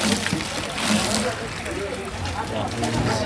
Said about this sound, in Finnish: Vieressä naiset pesevät pyykkiä, miehet täyttävät jerrykannuja ja vesibisnes pyörii.